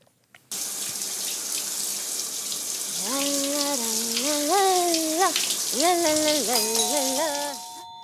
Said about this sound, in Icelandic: Við heyrum í styrtusöngurunum. Hann syngur af mikill í innlifun heima hjá sér.